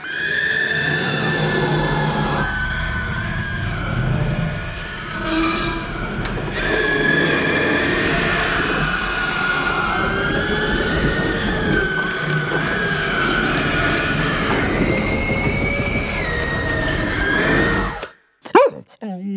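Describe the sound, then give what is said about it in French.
A demonic scream from the horror film Evil Dead Rise: a long, loud, harsh wail with a high wavering pitch and rough, layered texture, sustained for about eighteen seconds before cutting off abruptly. “C'est un cri démoniaque qu'on entend dans le film Evil Dead Rise.”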